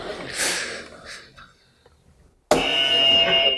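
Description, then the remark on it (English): A brief breathy snort fades into near silence, then a loud, harsh quiz buzzer blares abruptly and holds steady until the end, raspy. “okay, fingers on buzzers, hands on mics.”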